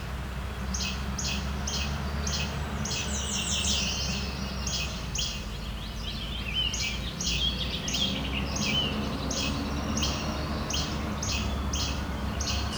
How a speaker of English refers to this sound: Okay, it's picking up the least flycatcher. This Chebek Chebek right away.